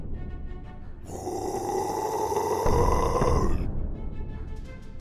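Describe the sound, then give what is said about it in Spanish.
A deep, sustained grunting growl, like a giant grunting at night in a story, rising loudly for a couple of seconds with a rough, buzzing tone before cutting off. It is most likely a voice imitating it. “Por las noches el gigante no paraba de dar golpes y gruñir.”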